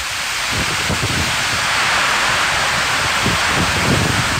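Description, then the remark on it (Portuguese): A steady, loud roar of heavy rain and storm wind during a storm in the town of Cláudia fills the whole stretch, a dense hissing wash with low rumbling gusts underneath and no voices. “Ó, escuta, escuta a força do vento e da água, ó.”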